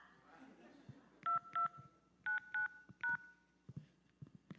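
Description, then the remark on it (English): Five crisp touch-tone keypad beeps sound in two quick bursts, a pair then a trio, loud, as a voicemail password is entered on a phone, with faint room noise and clicks around them. “Please enter your password, then press pound.”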